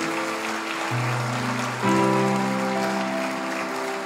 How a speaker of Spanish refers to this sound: Porque le damos un fuerte aplauso a estas personas que hicieron esta oración?